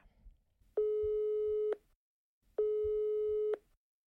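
A phone's ringback tone: two steady, mid-pitched electronic beeps, each lasting about a second with a short pause between, heard clearly over faint background rumble.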